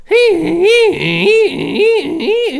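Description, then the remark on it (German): A voice mimics a smoke alarm going off in a stairwell, sounding about five loud, pitched, rising-and-falling tones in a quick, steady rhythm, with no other speech. “Weil du hast einen Feuermelder gehört und du bist sofort aus dem Haus gerannt?”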